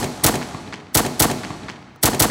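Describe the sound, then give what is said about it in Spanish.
Sharp, loud gunshot sound effect cracking in quick bursts, each sharp report followed by a decaying echo, repeating roughly every second with no voices present. “Betty Lou recibe cinco disparos en la espalda mientras está intentando huir del asesino”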